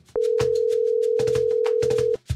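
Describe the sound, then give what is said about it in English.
A single steady electronic telephone tone, like a ring heard down the line, sounds for about two seconds and then stops. Soft rhythmic thumps play underneath it. “As the phone rings, you realize that you are not really a frustrated writer.”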